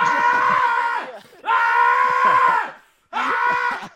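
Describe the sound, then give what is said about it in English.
A person loudly imitates the yelling of Asta, the main character of the Black Clover anime: three sustained, strained shouts with brief gaps between them, intense. “that's that's uh, that's Asta for the first like 15 episodes. That's it. That's all he does. He just yeah, after yells.”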